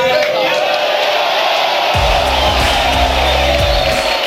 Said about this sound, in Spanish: Después de todo eso, hace su entrada triunfal bajo una ovación y una lluvia de papelitos, Diego Armando Maradona.